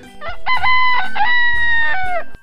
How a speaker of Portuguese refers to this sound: Levantava com o galo cantando